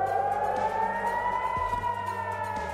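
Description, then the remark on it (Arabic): A steady, wailing air raid siren drones continuously at high volume in central Jerusalem during a rocket attack, its tone sliding slightly over the full length, with faint low rumbling and traffic-like noise beneath. “ولأنه الاحتلال ما أعطى أي اهتمام للتحذير على الساعة 6 المقاومة ضربت صواريخ وصلت القدس وسمعنا صفارات الإنذار والانفجارات بوسط المدينة”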